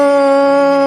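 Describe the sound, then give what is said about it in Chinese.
A voice imitates a tyrannosaurus roar with one loud, sustained howling cry, held at a steady mid pitch for about a second with no other sounds. “霸王龙发出了恐怖的咆哮”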